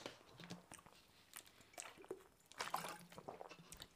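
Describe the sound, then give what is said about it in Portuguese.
Someone takes a sip of water: quiet wet mouth clicks and a soft gulp, with a few small splashy, slurping sounds spread over a few seconds and no talking. “Vou aqui beber uma água.”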